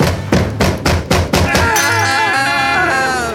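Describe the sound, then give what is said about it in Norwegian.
Five or six loud, evenly spaced knocks on a door, a steady rhythmic rapping, followed by a sustained, wavering voiced tone after the knocking stops. “Hvem var det som banket på døren?”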